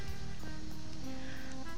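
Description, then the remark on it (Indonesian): High-tide ocean waves surge in a steady, rushing wash of noise, moderately loud and continuous, with a faint sustained tonal hum beneath them and no voices. “Tak pernah menyangka bahwa dirinya akan bertekuk lutut di tengah gelombang pasang.”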